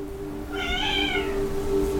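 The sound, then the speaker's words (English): A single drawn-out cat meow rising and falling over about a second, heard fairly clearly against a steady low hum, with no talking. “I hear cats calling.”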